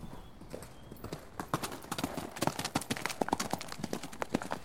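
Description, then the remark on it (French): Hooves of several horses belonging to newly arrived German troops pound the ground in a rapid, irregular clatter, striking hard surface in overlapping beats, loud and busy throughout. “J'entends encore le bruit des sabots des chevaux qui martèlent le sol bruyamment.”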